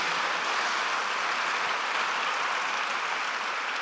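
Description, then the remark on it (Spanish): A crowd claps steadily in a dense, continuous wash of applause for God, holding at an even level for the whole stretch, with no voices rising above it. “Ah, no sé si alguien le puede dar un fuerte aplauso a nuestro Dios.”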